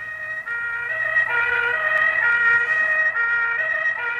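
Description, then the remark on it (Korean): A loud ambulance siren wails continuously with layered, slowly rising and falling tones, steady throughout, as the ambulance carries away a woman hurt when a stack of stock boxes collapsed on her; no voices present. “그 작은 몸에서 어떻게 그런 힘이 나왔는지 구급차에 실려가는 그녀 곁에서 제발 그녀가 무사히 깨어나길 빌고 또 빌었습니다.”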